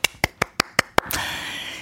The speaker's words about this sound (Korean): 음, 아주 큰일 하신 겁니다. 네, 박수!